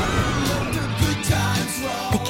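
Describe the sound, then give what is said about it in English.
Several people scream and yell together at an amusement park, loud and sustained for a couple of seconds, with a rumbling, rolling background like a moving ride. “And 4% while you're screaming at the amusement park.”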